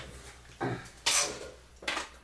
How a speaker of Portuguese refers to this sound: Guardaram o carrinho. Ouvinte que está apenas ouvindo, não está vendo, ele está guardando o carrinho na tá guardando a maquete. Exatamente. Tá guardando a maquete aqui